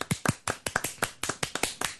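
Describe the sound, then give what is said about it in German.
Two people clap at the same time, one faster and one slower, their overlapping patterns producing a dense, uneven rhythm of sharp, crisp claps over two seconds with no talking. “Also ich kann es sogar so machen: die ein, der eine äh, klatscht schneller und der andere klatscht langsamer.”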